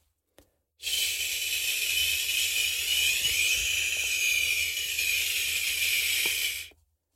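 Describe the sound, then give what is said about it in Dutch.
A steady mouth hiss held for about six seconds, its tone subtly shifting and dulling partway through as a stack of paper is moved toward the mouth, then stopping abruptly. “En je gaat horen dat het anders klinkt naarmate dat papier dichter bij mij is.”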